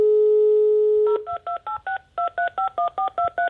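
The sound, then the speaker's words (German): A steady telephone dial tone gives way to a quick run of about eleven touch-tone beeps as a number is dialed to call someone back, each a short two-pitched chirp in an even, rapid rhythm, with no one speaking. “Sollen wir nochmal versuchen, sie zurückzurufen? Ja, wie, wie, wie machen wir das jetzt? Wir rufen einfach nochmal an.”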